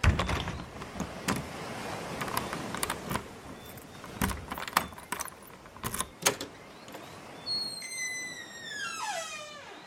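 Keys rattle and a lock clicks several times, then a house door swings open with a drawn-out, squeaky creak of its hinges as a man who has got out of bed unlocks and opens it. No one speaks.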